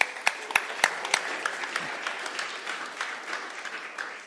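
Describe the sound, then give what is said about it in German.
A church audience breaks into applause for members who have been believers for over 40 years, with a few sharp, loud claps standing out at the start before settling into a steady, dense patter of many hands clapping. “Applaus für euch.”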